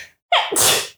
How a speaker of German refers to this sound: Gesundheit.